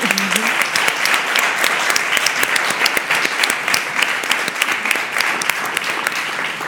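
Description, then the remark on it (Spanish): Loud audience applause fills the whole stretch, a dense steady patter of many hands clapping at once with sharp individual claps poking through, sustained without pause and without speech. “Eh, por todas ellas, eh, primero me ojalá un, un fuerte aplauso para todas ellas.”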